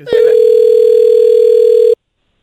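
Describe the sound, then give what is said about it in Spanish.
A single loud, steady telephone ringing tone hums for about two seconds, unbroken, then cuts off abruptly into silence with no voices, the call going unanswered. “Oye, tu carnal ya no contesta, güey.”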